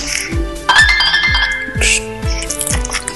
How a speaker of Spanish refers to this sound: Perdón, la alarma. La alarma. Eh, de la grabación. Sí, la alarma de la grabación.